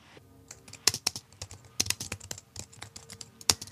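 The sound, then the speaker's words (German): Rapid, uneven clicking of keys being typed on a computer keyboard, fairly clear, with sharper louder strokes scattered among lighter taps and no voices. “Die das, Tastatur.”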